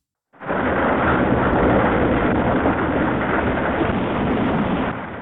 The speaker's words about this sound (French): En plus de ces photos, on peut y entendre des sons de la Terre comme la pluie ou des éruptions volcaniques comme ici,